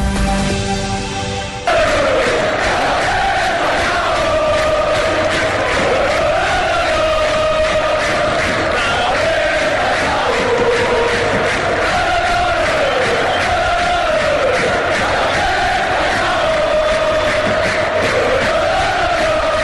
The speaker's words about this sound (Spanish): este cántico está aplazado por unos días en el eh, estadio Vicente Calderón.